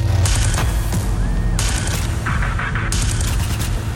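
Rapid machine-gun fire crackles in dense, uneven bursts over a constant low rumble, loud and sustained throughout, with a brief high whistle partway through.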